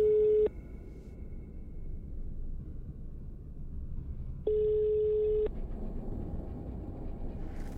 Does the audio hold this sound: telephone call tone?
yes